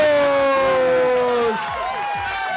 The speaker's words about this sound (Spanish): ¡Aplausos!